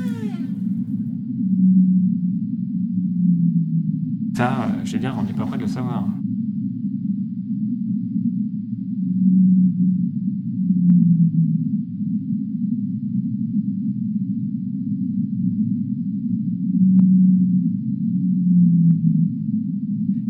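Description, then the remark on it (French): Sped-up low whale-like calls moan in pairs about every seven or eight seconds over a constant deep drone, with a man's voice briefly speaking over them near the start. “Ils émettent toutes des sons très très basse fréquence, c'est-à-dire en dessous de 30 Hz.”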